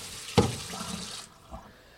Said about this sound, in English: I'm washing the Brussels sprouts.